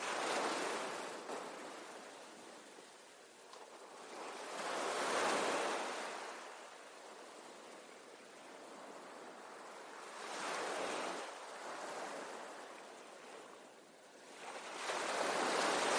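Ocean waves roll in and break on the shore, with a few broad surges swelling and fading over a steady hiss of surf. Moderately loud, with no voices.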